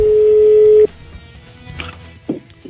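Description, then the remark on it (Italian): A loud, steady telephone ringing tone holds for almost a second, then cuts off, leaving quiet line hiss with a couple of soft clicks as the call connects. “Ci sentiamo la telefonata di Emiliano Pirri con Roberto”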